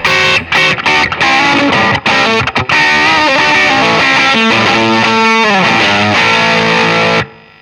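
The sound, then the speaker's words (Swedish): Heavily distorted electric guitar run through an effects pedal being tested in a pedal demonstration, harsh and buzzy with dense gritty overtones, a few choppy stabs then sustained wavering notes before cutting off abruptly. No talking. “det är alltid en trade-off att testa pedaler”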